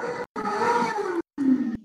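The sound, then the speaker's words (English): Street-racing cars at sideshows and drag races roar outside in three loud bursts, engines revving with rising and falling pitch, separated by brief silent gaps, with no talking. “no, it's fucking the, the cars. The, it's a lawless world out there, dude.”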